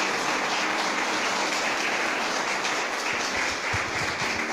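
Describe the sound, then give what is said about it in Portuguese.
A church audience breaks into sustained applause for the word of the Lord after a prayer, a dense, steady wash of many hands clapping at once, loud and continuous for several seconds with no talking over it. “Dê um aplauso à palavra do Senhor.”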